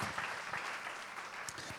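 An audience claps steadily for a man who took part and served, a dense, sustained wash of applause with no pauses, moderately loud throughout its short span.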